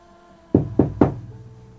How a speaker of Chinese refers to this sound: 他晚上就听着这门框哐哐哐的响，他也没在意，因为刮风嘛。夜里一点多，他就隐约着有人敲门。